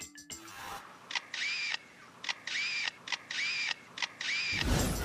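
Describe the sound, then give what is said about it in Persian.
A lyrebird imitates the motorized shutter of a photographer's camera: four quick whirring bursts with sharp clicks, each a fraction of a second long, separated by brief pauses, fairly loud with no talking. “The motorized shutter of a photographer's camera.”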